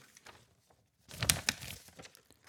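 A plastic fortune cookie wrapper crinkles softly, then is torn open in a louder burst of sharp crackling and rustling that trails off into lighter crinkles. No one speaks.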